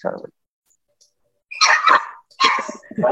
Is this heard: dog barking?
yes